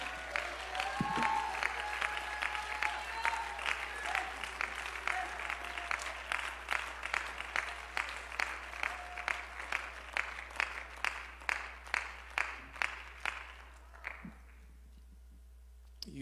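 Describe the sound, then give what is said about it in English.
A large church audience, urged by a preacher during an evening sermon, claps loudly and enthusiastically, the applause settling into a steady rhythmic beat before quickly dying away near the end. “If you believe it and you're expecting it, put your hands together, open your mouth, and get loud for a moment.”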